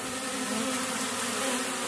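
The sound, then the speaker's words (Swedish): Dense, steady buzzing of many honeybees at an apiary with several hives, a continuous loud drone from a crowd of bees around their hives with no pauses or voices. “Jag lyssnar i hörlurarna och riktar micken mot kupa efter kupa. Svårt att säga. Mycket bin överallt faktiskt.”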